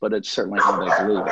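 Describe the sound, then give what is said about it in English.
Dogs bark in the background while a person keeps talking over them, the barking blending with the voice at a moderate level through the short stretch. “Pardon the dogs.”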